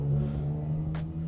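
A big car's engine drones steadily in the background, a low humming rumble that holds at an even, moderate level as it drives by, with no voices.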